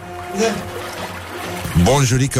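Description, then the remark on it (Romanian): A thin stream of water trickles and pours steadily for a couple of seconds, with people talking over it toward the end. “Și cineva a spus Terminați cu susurul că sunt tramvai”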